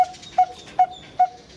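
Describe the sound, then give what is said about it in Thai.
A coppersmith barbet calls in a steady series of five clear, metallic 'pong' notes, evenly spaced about every 0.4 seconds, fairly loud over faint background hiss. “แต่ว่าตีทองเสียงจะเป็นอีกแบบหนึ่งเสียงตีทองมันจะดังป้งป้งเหมือนเหมือนคนตีเหล็กอะฮะเขาก็เลยเรียกว่านกตีทองอันนี้คือเสียงนกตีทองนะคะ”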